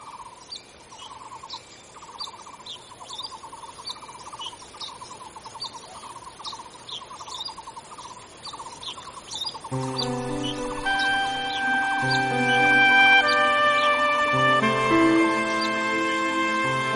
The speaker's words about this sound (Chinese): 哇，听到这个虫鸣鸟叫啊，再加上呢潺潺的温泉水声，相信很多听众朋友呢会觉得哇，现在一切烦恼都可以抛开了哦。